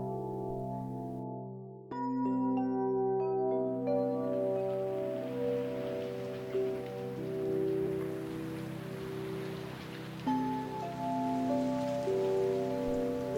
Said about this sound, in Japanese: あれ雨の音が聞こえるねうーんこれじゃあ外に遊びに行けないね